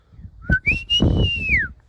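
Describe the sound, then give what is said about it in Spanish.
A person whistles a calling signal the way a father called his children: a short sharp note, then a long sustained tone that rises slightly and falls away at the end, loud, with no talking. “cuál es el silbido que regularmente utilizan tus padres”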